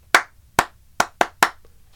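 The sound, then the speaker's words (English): Five sharp hand claps in the stadium rhythm heard over the loudspeaker at baseball games: two evenly spaced claps, then three quicker ones in a row, crisp and loud with no voices. “But at some point in the game, you will hear somebody over a loudspeaker clap this.”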